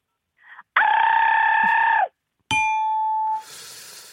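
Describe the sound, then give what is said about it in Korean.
A voice imitates a subway train pulling away: a short lead-in, then a long steady tonal hum, a pause, and a sharp bright tone that fades into a hissy rush. “지하철 출발 소리 갈게요.”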